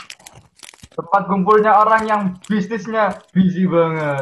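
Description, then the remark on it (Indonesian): Several crisp, brittle crunches from biting into a hard Lotus Biscoff biscuit, an imported snack, in the first second, followed by a person talking steadily with no further crunching. “Hmm, itu tadi adalah suara renyahnya dan nikmatnya Lotus Biscoff snack import.”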